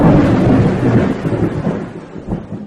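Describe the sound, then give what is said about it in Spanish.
Loud, deep rolling thunder rumbles continuously, swelling and fading in successive waves, with a hint of rain hiss beneath and no voices. “De tal manera que el mismo santuario del templo, como le llaman, no le apareció a los judíos mismos en su caída, sino que percibieron un gran hoyo en la tierra y el vaivén de truenos sucesivos.”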